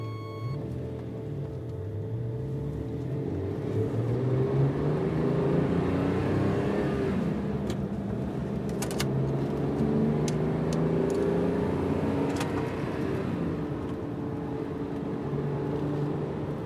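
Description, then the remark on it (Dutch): The engine of a car driving behind the speaker drones steadily, its pitch rising and falling as it revs and shifts, with a constant low rumble throughout and a few faint clicks. “Er rijdt een auto achter me aan.”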